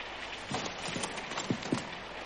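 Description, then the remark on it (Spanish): Steady rain hisses in a constant wash of noise, with a few louder, irregular drips or taps popping out above it. No one speaks. “Un enorme manto de oscuridad y tinieblas se apoderó de la estancia, para a continuación ser iluminado por los débiles y escasos rayos de luz que la luna podía emitir sobre los resquicios que se formaban entre el inmenso mar de nubes y lluvia.”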